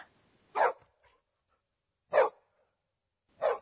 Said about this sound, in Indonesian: Oh, ternyata anjing.